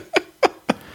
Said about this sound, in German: nee, ich glaube, das ist die Katze, die da hinten so Geräusche macht.